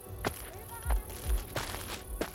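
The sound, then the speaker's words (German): Footsteps approach outside a gate at a slow, uneven pace, each step a soft thud with a scuffing edge, against a quiet background, with no voices. “als er draußen vor dem Tor Schritte vernimmt.”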